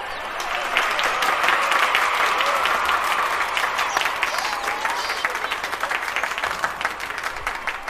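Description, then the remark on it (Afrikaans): A crowd of insects at a medal ceremony claps steadily and cheers, a dense continuous patter of many hands with excited voices rising through it, loud and sustained for several seconds. “Al die insekte juig en klap”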